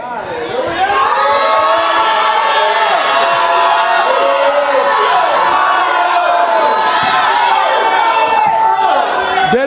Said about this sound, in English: 4 through 9 in the Passion Translation says, So go ahead, everyone, and shout out your praises with joy.